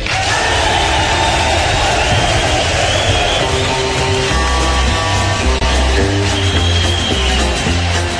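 A loud, live crowd roars and hollers throughout a concert at Folsom Prison; about halfway in, a band starts up with twangy guitar and a thumping bass line playing a country song's opening under the cheering.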